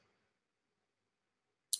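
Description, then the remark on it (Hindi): A single sharp, crisp computer mouse click lands near the end, after a stretch of near silence with only a faint murmur fading out at the start. “Uh, एक second एक second एक सेकंड मैंने मैंने जो मैंने जो क्लिक किया वो अब मेरे हाथ से निकल गया तो मैंने इसलिए वापस जा रहा हूँ”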